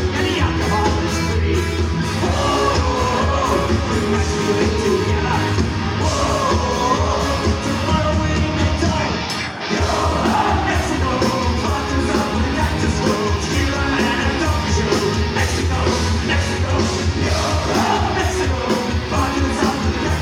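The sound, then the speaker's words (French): A loud, dense roar of a crowd yelling and cheering in a concert hall at the end of a rock concert, over pounding live rock music, sustained throughout with a brief dip near the middle. “Alors c'était la fin, c'est la fin du concert de ….”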